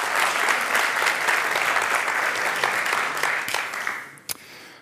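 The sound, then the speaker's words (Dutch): A crowd claps steadily in a dense wash of many hands, holding strong for about four seconds before thinning out, with a last few scattered claps at the end: an audience at a talk giving a warm welcome to a speaker. “Geef hem een warm applaus.”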